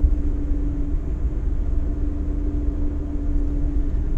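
A vehicle's engine drones steadily as it drives at about the same engine speed, recorded with an FR361 directional microphone, with heavy low rumble and a sustained mid-pitched hum holding one constant speed, plus a wash of road noise and no talking.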